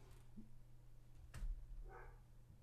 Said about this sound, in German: Mein Hund bellt.